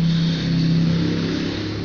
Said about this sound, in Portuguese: Eu peço desculpa pelo som dos carros e dos veículos, das motos e essas, essas, essas coisas que acontecem. Infelizmente, o ambiente onde eu moro não é propício para eu gravar muita coisa.